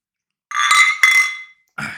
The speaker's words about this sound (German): Und wie zu Beginn von jeder Folge stoßen wir erstmal auf euch an.